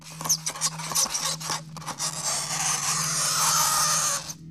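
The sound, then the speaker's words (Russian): Late at night, someone scratches at the door of a ship's cabin: a few quick, uneven strokes build into a sustained, harsh raspy scraping that then cuts off abruptly, over a steady low hum. No one speaks. “Несколько раз в неделю, глубокой ночью, я просыпался от того, что кто-то скребется в дверь моей каюты.”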